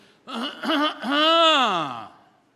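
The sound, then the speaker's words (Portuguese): A voice imitates a man's habitual throat clearing: two short voiced grunts, then a longer, drawn-out hum that rises and falls in pitch, moderately loud and heard alone. “Esse era o pigarro dele.”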